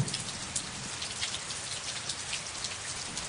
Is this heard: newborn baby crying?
no